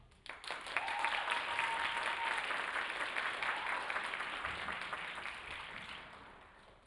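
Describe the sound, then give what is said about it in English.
A crowd breaks into sustained applause for E AEC, a dense wash of many hands clapping that holds steady for several seconds before gradually thinning out. No one speaks over it. “Please join us in a hearty round of applause for E AEC.”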